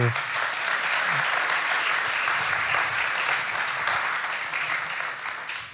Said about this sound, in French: Eh ben, bravo, je crois qu'on peut vraiment applaudir ce plan parce que c'est.